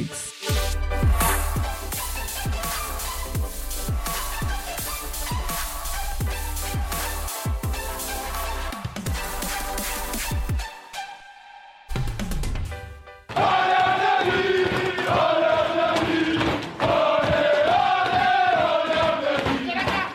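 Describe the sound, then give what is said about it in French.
A loud, boisterous group of Paris Saint-Germain football players cheering and chanting together in their locker room after the final whistle, celebrating eliminating the reigning European champion, with rhythmic thumping and clapping, a brief lull, then sustained shouting and singing. “Vous venez d'entendre la joie du vestiaire parisien hier soir après le coup de sifflet final.”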